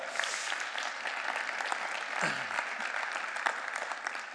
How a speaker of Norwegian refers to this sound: Han kan dere godt gi en klapp for, for han står på med det.